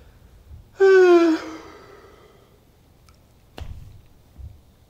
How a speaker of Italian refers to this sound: Ragazzuoli, questo sbadiglio mi fa capire che siamo quasi arrivati, eh?